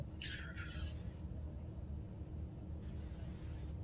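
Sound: bus interior engine rumble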